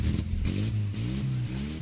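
A car engine revs, its low rumble climbing and dropping in pitch in a few quick surges over a steady idle, with no voices.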